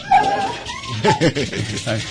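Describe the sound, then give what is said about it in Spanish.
A dog barks and whimpers in short, high yelps and whines, several quick cries in a row with brief pauses between them, no one talking over it. “Curiosamente, ahí tenemos visita y, El perro. salieron a dar lata.”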